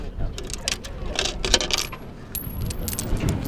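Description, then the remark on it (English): Coins clatter and drop into a coin-operated telescope on the crowded observation deck at the Twin Peaks summit, a quick run of bright metallic clinks and rattles over a steady background hum, with faint murmuring voices. “Damn. Ate my money.”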